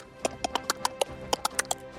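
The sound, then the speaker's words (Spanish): Scissors snipping, about ten crisp, quick cuts in a steady rhythm with one brief pause midway, clear and distinct against a quiet background with no voices. “sonido de tijeras ah. recortadas.”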